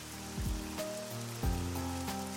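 A steady, even patter of rain hisses throughout, with soft plucked musical notes and low sustained tones playing over it. No voices are heard.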